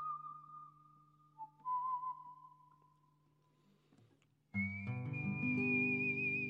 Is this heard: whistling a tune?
yes